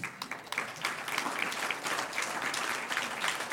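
A crowd claps steadily, a dense, continuous patter of many hands at moderate volume that holds evenly throughout with no voices over it.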